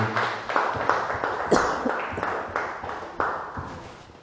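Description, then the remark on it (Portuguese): An audience applauds the name of Jesus together at the close of a service, many hands clapping in a steady rhythm of roughly two beats per second, a dense, lively wash of claps with a brief higher tone rising through it partway. “Vamos aplaudir o nome dele.”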